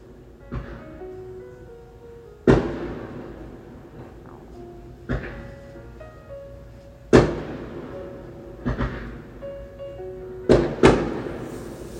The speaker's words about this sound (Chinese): 你好，现在是七月一号晚上十点五十七分，窗外在放烟花。